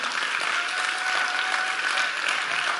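Steady audience applause fills the whole stretch, a dense wash of many hands clapping at once, moderately loud and continuous with no voices standing out.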